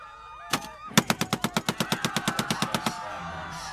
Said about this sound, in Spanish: En este momento, el sonido volvió a mí. Podía escuchar disparos todo alrededor de la sala. La película todavía se estaba reproduciendo, creando una sensación de caos que nunca experimenté en mi vida.